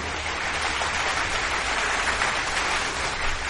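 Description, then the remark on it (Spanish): Steady, dense applause from a crowd, a continuous crackle of many hands clapping at an even level for a few seconds, with no voices over it. “Y esta vez sí que se le puede aplaudir porque ha sido una auténtica odisea que se pudiera suscribir.”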